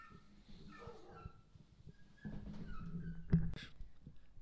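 dogs fighting

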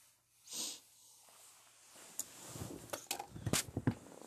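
coughing and wheezing

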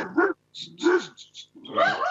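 dog barking

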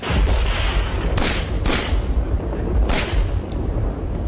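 gunshot

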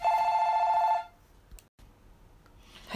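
telephone ringing

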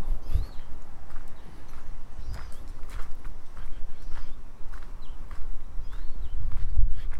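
footsteps walking outdoors

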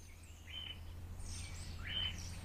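birds chirping

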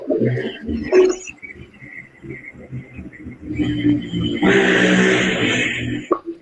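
motorcycle engine revving

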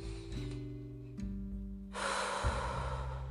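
deep breathing

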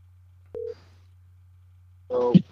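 telephone ringback tone

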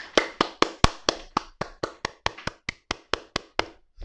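hand clapping

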